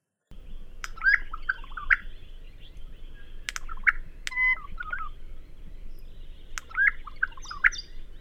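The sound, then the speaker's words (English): A Regent honeyeater from the Blue Mountains area sings a normal song of bright, metallic chirping phrases, repeated in short bursts at the start, middle and end. The song is fairly clear over a steady low background rumble, with no talking. “beginning with a normal or proper call, as Ross calls it, of a Regent Honey Eater from around this sort of Blue Mountains area.”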